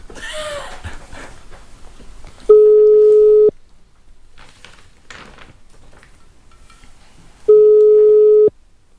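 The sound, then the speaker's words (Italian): A telephone ringback tone on an outgoing call: two loud, steady one-second beeps about five seconds apart, preceded by some faint panting and rustling noises. “Sta squillando.”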